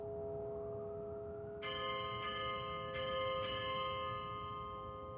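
The untuned bell of AK Dolven's artwork Untuned bell rings with several struck tones, about four strikes at uneven intervals, each leaving a dense cluster of clashing overtones that hang and blend over a steady low hum.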